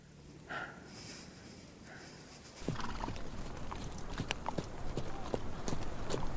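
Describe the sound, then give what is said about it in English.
Horse hooves clip-clop steadily, growing louder and busier after a quieter start, with a brief snort or whinny early on and sharp hoof strikes throughout. “Mount your horse, General.”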